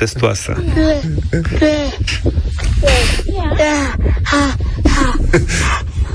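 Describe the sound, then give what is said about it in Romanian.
A voice imitates a parrot mimicking a child, giving shrill, squawky, wavering cries in quick bursts. They run loud for several seconds, with no clear words. “A, sunt papagal care imită un copil.”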